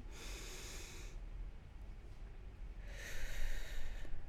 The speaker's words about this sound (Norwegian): Eh, og så skal du holde den på toppen der, så du puster inn med nesa. Så holder du den mens du teller til fem, og så puster du ut med munnen mens du teller til fem.